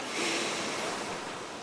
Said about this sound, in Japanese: 岬までやってきたんですけれどもこの周りもですね多肉植物のようなね、えー、低い灌木がこう連なっているところに荒涼とした岩の岬が、えー、出てくるという形でそして深い青い海と波の音も後ろでうっすら聞こえるでしょうか。